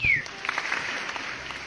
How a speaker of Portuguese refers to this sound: Cara, ó, eu vou dar palmas pro roteiro. Eu vou bater palmas pro Leonardo DiCaprio fazendo uma atuação foda.